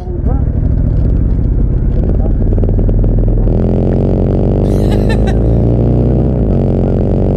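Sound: car engine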